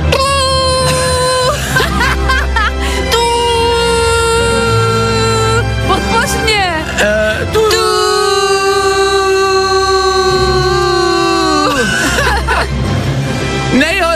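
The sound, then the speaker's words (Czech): Many car horns blare together in a loud, sustained chorus of overlapping tones at different pitches, with a few horns dropping out and rejoining before the blaring cuts off, as drivers honk together on a countdown called by Czech station Fajn rádio. “Hashtag fajn trouba, označte fajn rádio a pojďme všichni teď společně prostě zatroubit a pojďme všem těm lidem poděkovat.”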